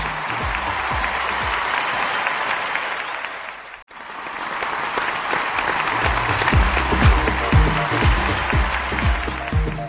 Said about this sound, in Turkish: Hakkıyla kazanmış olan e, tüm emekçileri kocaman alkışlıyoruz.